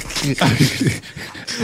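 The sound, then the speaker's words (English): A dog whimpers in short, rising whines, with breathy panting and some noisy background rustle around it, fairly loud over a brief moment. “No, that's my dog.”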